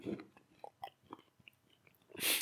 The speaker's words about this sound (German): da sind kleine Schokoladenstückchen drin und ich sag dir was, ich mach das jetzt auf und hau mir den Mund voll